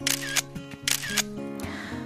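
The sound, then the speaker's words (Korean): A camera shutter, pressed again after the camera was dropped, smashed and patched back together, fires three times in quick succession, each a crisp mechanical clack-and-snap, the last one softer, with steady background music humming underneath. “어찌저찌 복구를 시켜서 다시 셔터를 눌러봤는데요.”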